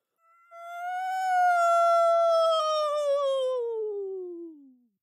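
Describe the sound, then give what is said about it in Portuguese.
A person imitates a cow with one long, loud, drawn-out moo that starts fairly high and slides steadily downward in pitch before fading away, heard on its own without any talking. “A vaca se aprumou, encheu os pulmões e soltou mais alto mu que já tinha dado na vida.”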